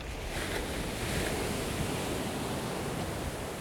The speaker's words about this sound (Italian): Sento sulle guance gli schizzi provocati dallo scafo che fende le onde, le folate di vento impertinente che si infilano sotto i vestiti.